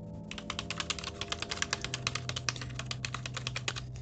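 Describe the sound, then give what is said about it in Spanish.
Rapid, steady computer keyboard typing, a dense run of crisp clicking keystrokes, with a low hum underneath and no voices. “Un teclado.”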